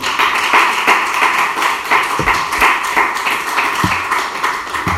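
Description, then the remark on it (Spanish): An audience applauding for the Lord Jesus Christ during a sermon, a steady wash of many hands clapping at once, fairly loud and sustained throughout with a few sharper claps standing out. “Dele un aplauso al Señor Jesucristo.”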